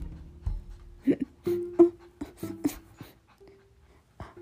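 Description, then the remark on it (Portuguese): A female dog whimpers in several short, high, nasal whines, broken up by wet licking and snuffling noises as she licks her owner, with no one talking. “eu não posso fingir que chorei que minha cachorra veio me lamber.”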